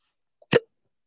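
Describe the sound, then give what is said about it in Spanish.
A single short hiccup, a sudden gulping catch of breath, with silence all around it. “Sí, sonó y, demasiado ese hipo.”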